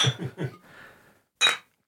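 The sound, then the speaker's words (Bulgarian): Glasses clink together once in a bright, ringing toast, preceded by a few soft, muffled knocks and a quiet rustle. “На здраве.”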